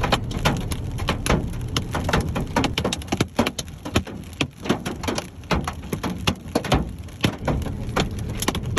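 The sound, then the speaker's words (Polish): Hail with heavy rain in a powerful downpour, hailstones at least the size of ping-pong balls, pound hard surfaces in a dense, continuous clatter of sharp, loud impacts, with no voices. “Zatem to, co słyszycie, to jest gradobicie. Grad z deszczem, ulewa potężna.”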